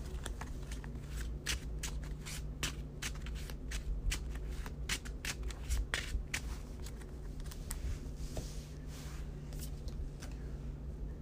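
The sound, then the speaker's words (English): A deck of cards being shuffled during a card game, with a rapid, crisp flurry of riffling clicks and soft slaps continuing steadily for several seconds over a low background hum. “I will shuffle the glyphs.”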